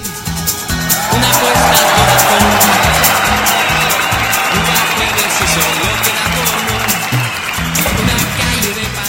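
A crowd applauds the team behind the radio programme Radio Pasión US, breaking into loud, sustained applause with some cheering, a dense wash of clapping that swells within the first second and holds steady, while a rhythmic low thumping beat runs underneath.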